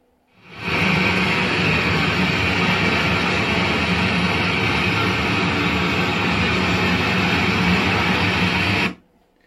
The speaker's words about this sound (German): wir haben zum Beispiel einen Güterzug, der in drei Meter vorbeifährt